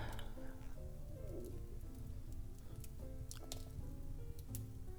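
Soft, sparse crackles and pops of a burning fireplace sit under a steady, low tonal background, with occasional sharper snaps standing out.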